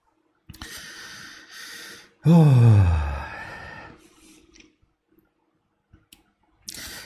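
drinking cold water

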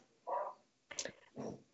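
dog

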